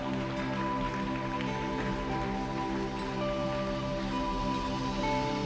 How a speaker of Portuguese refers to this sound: Alguém pode aplaudir o Senhor? Alguém pode ficar feliz?